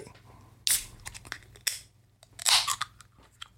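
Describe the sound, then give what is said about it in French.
A drink can being opened: a few sharp crackling bursts, with the last a longer hissy release like a tab popping and fizz escaping. No voices. “Donc c'est une canette, bien, évidemment, vous l'avez entendu.”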